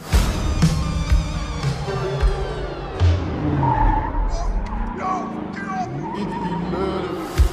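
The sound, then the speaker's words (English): A car drives hard with tires skidding and squealing, engine noise rising and falling across several bursts, loud, with voices talking underneath. “That's the car right there.”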